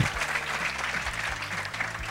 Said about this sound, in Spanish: Un aplauso bien grande para Alveja.